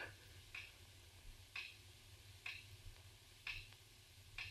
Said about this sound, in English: So quiet. I could hear the clock ticking away the seconds.